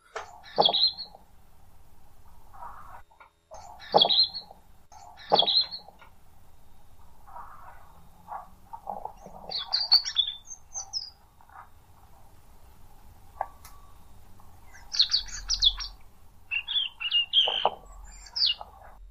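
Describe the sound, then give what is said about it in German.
A European robin sings alone in short, high, thin phrases with sharp trills and tinkling notes, separated by brief pauses, against a soft low background hum. “Ich würde zum Abschluss nochmal das Rotkehlchen anmachen.”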